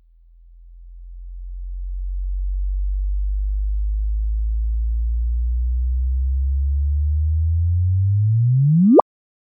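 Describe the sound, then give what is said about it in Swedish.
A sonified merger of two neutron stars, starting about 300 km apart: a smooth, low pure tone hums steadily for several seconds, then sweeps rapidly upward into a sharp high chirp and cuts off abruptly. No voices. “För mig påminner det här ljudet ganska mycket om ljudet från det som kallas Eulers skiva.”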